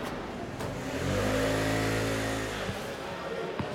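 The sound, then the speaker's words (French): A delivery motorbike engine revs up, a steady rising drone that holds for a couple of seconds before dropping away, with faint street noise around it. “Bon, là, on est euh, devant euh, des vélos, des motos pour les livreurs.”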